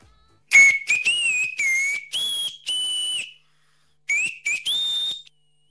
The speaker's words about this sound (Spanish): ¿Querés que te chifle el feliz cumpleaños? Dale. Sí.